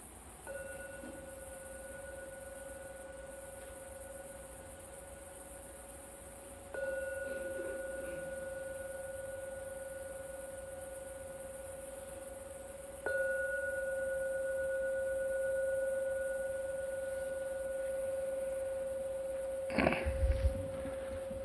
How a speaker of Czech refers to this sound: Teď třikrát zazvoním na zvon, který ukončí naši meditaci.